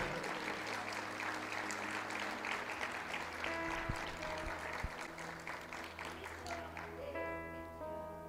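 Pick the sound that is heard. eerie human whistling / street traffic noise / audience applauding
audience applauding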